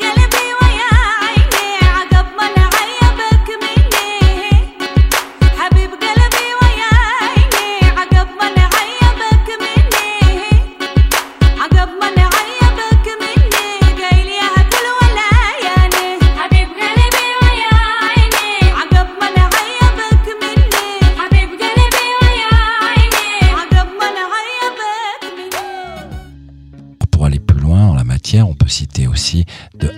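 A traditional Yemeni song performed by a trio of sisters plays over a steady, pounding electronic beat, with a melodic vocal line and bright layered instruments; the music cuts out near the end and a brief different sound follows.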